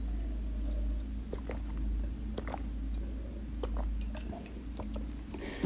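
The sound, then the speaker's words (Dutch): Someone takes sips of water, with soft wet mouth clicks and swallows scattered over a steady low hum; nobody speaks. “Ik pak even wat water trouwens.”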